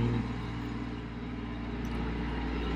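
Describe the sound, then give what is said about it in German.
A tractor engine rumbles past, a steady, heavy low-pitched drone with a throbbing mechanical hum that holds fairly loud for the whole few seconds, with no voices. “äh, Trecker, Trecker, Trecker.”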